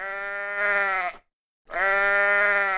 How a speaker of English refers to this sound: 国外的绵羊 lamb 叫起来是 ba ba，貌似中国的羊咩咩这样的叫好像更温柔一点。